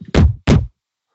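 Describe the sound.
A voice imitates a microphone's scraping crackle, caused by holding the microphone too close, with two short, rough, noisy bursts in quick succession, fairly loud, followed by silence.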